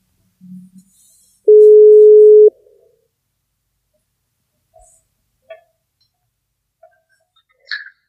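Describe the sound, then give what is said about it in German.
A phone's ringing tone sounds once as a call is placed: a steady, loud one-second beep, followed by near silence broken only by a few faint clicks and small handling noises. “Lass uns den mal anrufen, der weiß sowas.”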